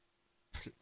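A single brief, quiet cough sounds once amid stillness, with no talking around it.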